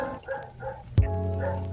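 A dog makes whiny, yelping noises, then lets out one sharp, loud bark that trails into a drawn-out, tonal whine.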